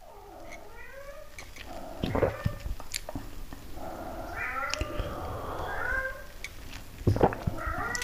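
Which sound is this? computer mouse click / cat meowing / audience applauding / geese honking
cat meowing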